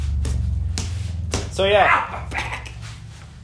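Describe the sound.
A few dull thumps of fists hitting a punching bag, spaced irregularly, over a steady low hum, with a short whining sound and someone speaking briefly.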